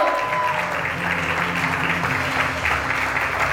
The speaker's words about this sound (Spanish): aplauso.